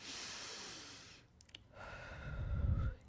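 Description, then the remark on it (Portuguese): A woman imitates a baby's breathing: a long airy inhale, a few small clicks, then a slower, deeper exhale with a soft voiced hum, heard alone without speech. “Já repararam que coisa linda um bebê respirando?”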